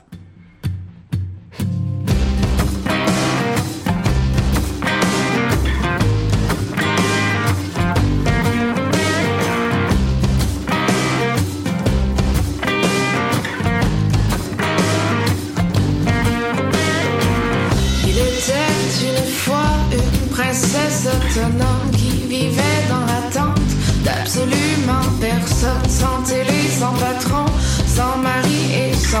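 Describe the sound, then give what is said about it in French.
A loud, dense grunge-leaning rock song played on Choc, with a grungy electric guitar sound and driving drums, less rap-like, kicking in after a few sparse opening hits and pounding on steadily without any vocals. “Ça va être un petit peu plus grungy, le moins rappeux, le moins plus guitare électrique.”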